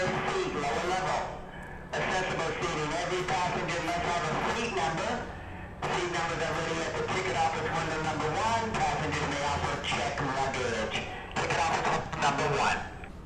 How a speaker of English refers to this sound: As you can hear, the loudspeaker announcement is somewhat distorted, but people are preparing to go up to San Francisco by the Coast Starlight and then onwards to Portland and Seattle.